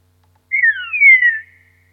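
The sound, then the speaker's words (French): A single short phrase of recorded bird song, a different dialect variant of the song: clear, whistled notes sliding downward, lasting about a second, heard alone against a quiet background. “Donc en fait, tous ces oiseaux se diffèrent par leur forme de chant.”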